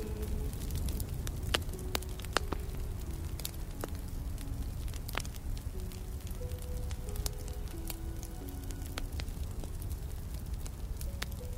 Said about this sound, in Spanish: te sientas delante de la hoguera. Sientes su calor. Una energía especial te envuelve Sientes la magia y el poder de la hoguera en tu interior.